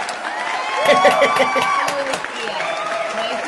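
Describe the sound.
Steady clapping from a crowd, mixed with cheering voices and raised talk, swelling in the first half before gradually thinning out.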